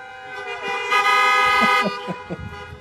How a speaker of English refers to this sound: I told her if she did real good and y'all honked your horns, it meant encore. Everybody okay with that?